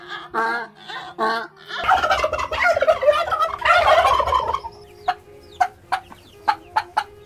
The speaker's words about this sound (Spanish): Inmediatamente bajaron al río con la señora llevando consigo los animales y tan luego llegaron al río provocaron que los gallos cantaran, que los guajolotes clucluteran y los burros rebuznaran.